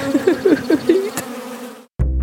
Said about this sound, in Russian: Ее ужалила оса.